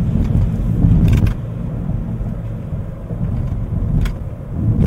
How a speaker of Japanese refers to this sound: 今例のローランドのバイノーラルマイクを使って DR05X で録音しながら車で走ってくれますなんか自分の耳で聞くのとは違う音で聞こえますね